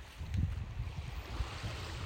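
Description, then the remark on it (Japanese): Waves wash onto the shore near the waterline at Yamanoshita Seaside Park in a steady, close rushing roar with a deep rumbling undertone and some gusty wind buffeting, continuous throughout with no voices. “まあ、もうちょっと波打ち屋の近くに来てみましたなかなかめったにないよねあ久しぶりにこの山の下海浜公園の波打ちまで来てみたんですけど”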